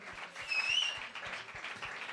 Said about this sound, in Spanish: Un aplauso, un aplauso.